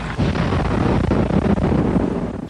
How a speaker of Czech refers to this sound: Moutné exploze slyší lidé v širokém okolí.